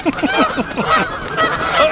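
bird, geese honking

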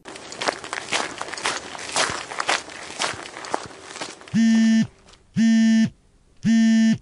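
human body sound, footsteps walking

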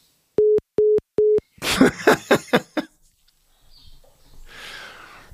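signal or alarm, answering machine beep tone

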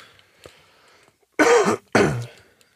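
human body sound, cough

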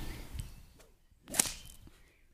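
tool, whip being cracked

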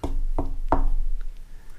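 impact, knocking on a door

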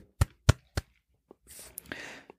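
human body sound, hands clapping

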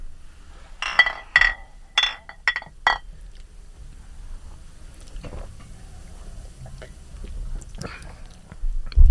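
household object, beer glasses clinking

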